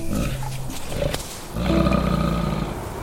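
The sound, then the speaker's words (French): A polar bear roars twice, deep and rumbling, with the second roar louder and more sustained than the first. No one speaks. “L'ours polaire est donc le plus gros carnivore terrestre.”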